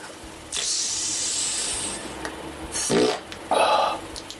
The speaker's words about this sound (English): Perhaps you'd want to give me a quick lick every time I queef.